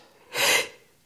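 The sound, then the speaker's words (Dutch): A single sharp sneeze, a loud, breathy burst of hissing noise lasting under half a second, with no one talking. “Gezondheid, het is altijd twee keer.”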